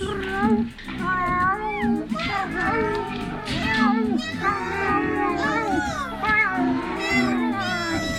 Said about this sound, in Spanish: La verdad es que había mucho que escuchar pues al otro lado de la puerta cerrada y al pie de las escaleras de piedra se desarrollaba una verdadera pesadilla de maullidos y arañazos felinos.